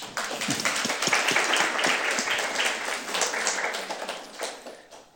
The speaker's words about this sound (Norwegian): Gi han en stor applaus.